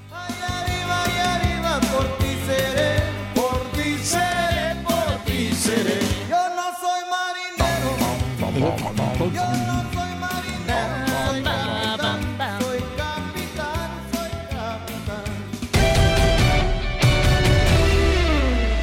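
Loud, steady rock band music from the soundtrack of a biographical film, dense with guitar-like tones and a driving beat, briefly thinning to a sustained note midway before picking up and ending even fuller.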